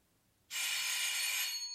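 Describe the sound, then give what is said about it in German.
A doorbell at the door of a home on Kahnstraße rings in one loud, steady, bright metallic burst that starts abruptly after a short quiet moment and holds for over a second. No one speaks. “Nein, ich mache nicht auf, wenn es an der Tür klingelt.”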